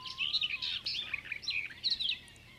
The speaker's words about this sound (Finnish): Kirjokerton laulu muistuttaa hieman lehtokerton laulua, mutta se on lähes aina kovempi, terävämpi ja lyhyempi